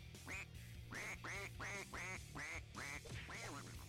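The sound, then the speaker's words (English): A duck quacks repeatedly in a steady series of about seven loud, nasal calls, evenly spaced, without any talking. “Quack, quack! Quack, quack!”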